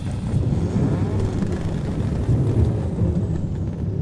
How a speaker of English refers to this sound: He could hear motorcycles and trucks moving outside the camp, and the sound of the engines reflecting off the mountain walls created a constant rumbling that sounded like thunder echoing through.